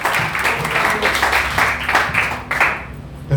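An audience applauds steadily, many hands clapping in a dense, continuous wash of sound that holds at a strong level for a few seconds, with no voices on top.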